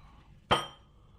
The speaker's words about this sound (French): Aïe aïe aïe, je pose le micro. C'est pas facile avec hein, le téléphone.